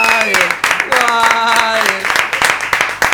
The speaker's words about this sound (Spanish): ¡Aplausos de nuevo para. Bravo